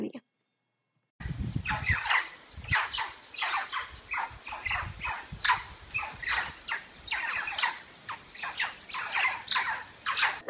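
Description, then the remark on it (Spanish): A woolly monkey (churuco) calls again and again in quick, shrill squawking bursts that repeat in an uneven rhythm over a low, rumbling background. “Freddy nos cuenta acerca del mono churuco”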